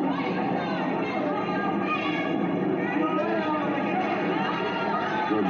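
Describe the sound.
A large arena crowd murmurs and chatters steadily before a fight, before the bell has rung, a dense wash of overlapping voices with occasional rising shouts, filling the space continuously at a moderate, even level.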